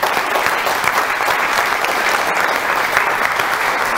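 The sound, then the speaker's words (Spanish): A church audience breaks into sustained applause for God, a dense, steady wash of many hands clapping at a loud, even level for the whole stretch, with no voices standing out. “Denle un aplauso a Dios, por favor, grande.”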